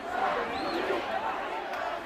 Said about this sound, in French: les manifestants ont défilé sur l'avenue Bourguiba, scandant des slogans anti-France et anti-américain et de soutien aux Palestiniens. C'est l'une des plus grosses manifestations dans le pays depuis plusieurs années.